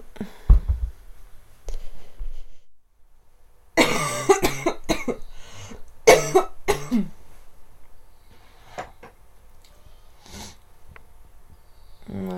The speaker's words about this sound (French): je tousse toujours un peu le matin.